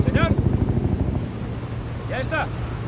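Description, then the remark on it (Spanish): A helicopter flies over the fleet at dawn, above the deck of the Seaway Eagle. Its rotor thumps in a rapid low pulse over a steady rumble of engine and wind noise, then fades back into the drone. Two brief, high, chirping cries cut through. “Un helicóptero sobrevuela la flota en la cubierta del Seaway Eagle.”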